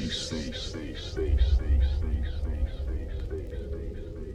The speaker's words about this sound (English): It'll show you you're alive. and listen to this fat bass that will send the blood coursing through your veins.